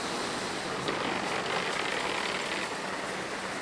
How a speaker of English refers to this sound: That right there is the truck that goes around all day long.